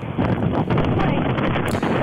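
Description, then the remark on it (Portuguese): Loud, steady wind buffeting a caller's phone microphone during a phone call, a constant roaring rumble with gusty fluctuations that fills the whole two seconds and drowns out everything else. “Ah, ok, é o que? É o vento? É o vento.”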